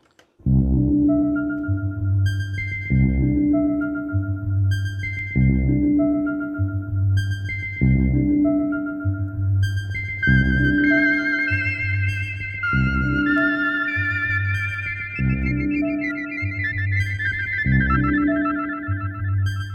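Gentle electronic synthesizer lullaby for babies aged 0 to 6 months, built on a steady, repeating bass-and-chord loop, with a brighter twinkling melody joining partway through; even, moderately loud, and no voices.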